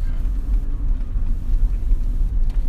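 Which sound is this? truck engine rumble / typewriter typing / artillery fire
truck engine rumble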